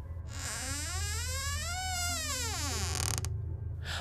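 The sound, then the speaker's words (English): A door creaks open slowly in one long, drawn-out groan that rises in pitch and then sinks back down, lasting a couple of seconds over a low steady rumble. “I opened the door, and what I saw next resonated with all the feelings I felt inside.”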